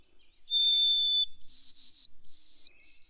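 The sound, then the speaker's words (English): A white-throated sparrow whistles a clear, pure-toned song: one long steady note, then a step up to a higher note repeated in three sustained whistles, loud with no other sounds. “That's the white-throated okay. sparrow, and they yeah. typically go up, but some birds go down.”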